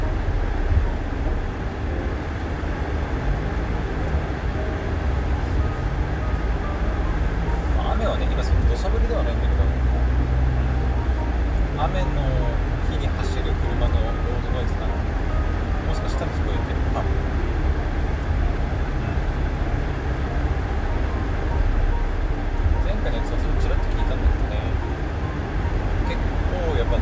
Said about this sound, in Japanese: 今おそらく皆さんにはこの車のエアコンの音とか車のロードノイズっていうのとか